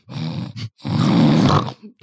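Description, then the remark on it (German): A voice imitates the loud snoring of parents with two long, rasping, guttural snorts, harsh, separated by a brief pause and followed by a faint short breath. “Schnarchende Eltern, all diese Gründe sorgen dafür, dass keiner mehr Kinder haben will.”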